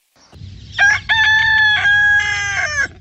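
A rooster crows loudly, one long drawn-out cock-a-doodle-doo with a rising start and a sustained, wavering finish, over a low background rumble.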